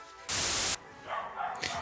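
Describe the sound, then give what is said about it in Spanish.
An angry dog barks outside, muffled, following a short, loud burst of hissing static-like noise. “Dame un segundo que hay un perro rabioso afuera.”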